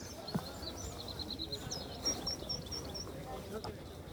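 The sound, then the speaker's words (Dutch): Faint birds chirping, a string of short high-pitched calls repeating across a quiet outdoor background with a soft low rumble, on an island. “Nou, verder is het ook heel stil en eh, hoor je eigenlijk alleen maar vogels.”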